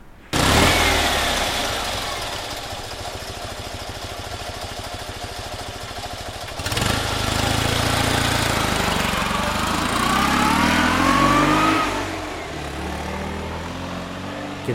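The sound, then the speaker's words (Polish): A small Fiat 126p car engine runs loud, chugging steadily with a rough, knocking idle, then revs up with rising whine before settling back down; no voices. “Tutaj mam właśnie tego malucha na przykład, który nam użyczyła pani Janet Połtorzycka.”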